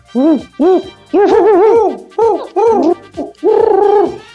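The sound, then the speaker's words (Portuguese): A person imitates an owl, voicing a run of loud hooting calls, some short and some drawn out and wavering, in quick uneven succession. “É uma coruja!”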